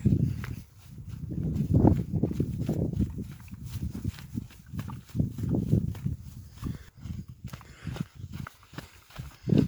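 Barefoot footsteps crunch and scuff over stony ground during a barefoot downhill run on a mountain, in an uneven, cautious rhythm, with small stones shifting underfoot and no talking.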